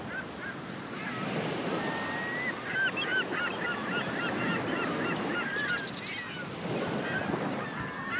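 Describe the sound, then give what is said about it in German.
Seagulls call again and again in short, laughing cries over a steady wash of surf and wind, with no one speaking. “meiner Fantasie höre ich die Möwen lachen.”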